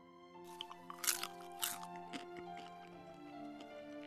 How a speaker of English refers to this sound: Santa is eating the cookies. Ho, ho, ho, says Santa. He likes our cookies.